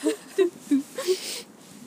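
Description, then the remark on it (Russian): A voice hums a quick four-note jingle, short rising and falling tones imitating a transition sting, moderately loud, lasting under two seconds. “Я э, и отбивочка такая.”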